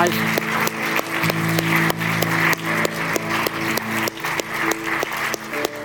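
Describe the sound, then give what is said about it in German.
An audience applauds Jesus Christ for about six seconds, dense steady clapping with crisp individual claps, over a low sustained musical tone that holds underneath. “Geben wir einfach nochmal einen riesigen Applaus.”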